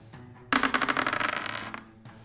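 A die rolls across a hard surface: a sudden burst of rapid, bright clattering taps that gradually slows and fades after about a second, with no voices.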